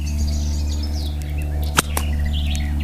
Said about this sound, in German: Du musst einfach nur die Peitsche nach vorne bewegen. Du musst nicht hauen.